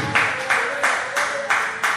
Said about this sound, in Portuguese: Deus! Vamos aplaudir o nome de Jesus.